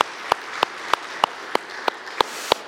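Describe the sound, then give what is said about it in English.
Applause from an audience for a volunteer who helps with the group ministries, led by a steady, evenly paced run of about eight sharp, crisp claps over a soft wash of scattered clapping. No one speaks. “So can we give him a round of applause for just what he does?”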